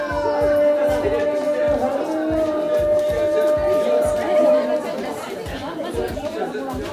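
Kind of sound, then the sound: ambience, crowd chatter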